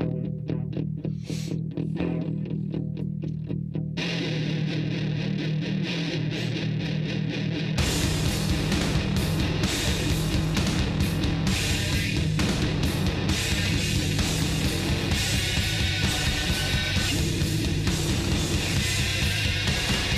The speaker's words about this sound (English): So it's kind of this noise, you know, art project type of song. It's not, you know, I'm, I'm not a huge fan of it. It's just weird that it was that much space between the end of the record and then this song.